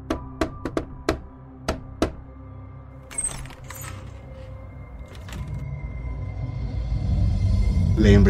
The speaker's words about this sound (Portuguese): Um dia bateram na porta de sua casa.